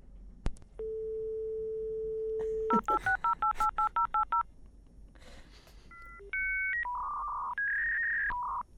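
A dial-up internet modem connects over a telephone line: a steady dial tone, a quick run of touch-tone digits, a hiss, then a series of shifting electronic handshake tones. The sequence is loud and stands alone with no voices.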